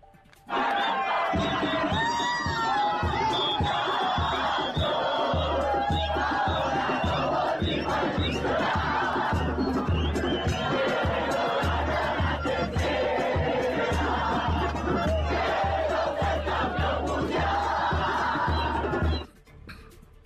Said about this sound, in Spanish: Si querés escuchamos un poquito de lo que fue el festejo de la gente.